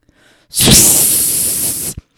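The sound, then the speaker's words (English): A voice imitates a gooseneck faucet coming off and spraying water: one loud hissing whoosh that bursts out sharply and holds steady for about a second and a half before cutting off abruptly. “and the entire faucet comes off in my hand and starts spraying water all over me, all over the counter, and right up into the turned on brass electrified pendants that are going to crash down and kill you.”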